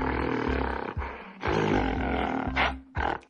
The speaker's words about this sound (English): This is the sound of a mountain gorilla. These guys are usually found roaming forests in Africa.